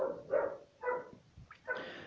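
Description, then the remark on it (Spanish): A female dog barks out of control several times in quick, uneven succession, the barks fairly loud, with a short higher yelp before the last one. No one speaks. “Escuchá cómo ladra mi perra, está descontrolada.”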